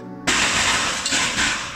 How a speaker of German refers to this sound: Dieses Geräusch kennen hoffentlich nur sehr wenige von euch, denn das war das Geräusch einer gebrochenen Traverse.